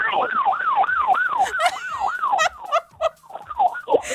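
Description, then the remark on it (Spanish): A loud ambulance siren wails outside in a fast, rising-and-falling yelp while someone waits outside to enter a conference, then breaks up into choppy bursts of noise as it moves past. “No, yo no, es, una ambulancia, yo estoy fuera de cuatro esperando entrar a la conferencia,”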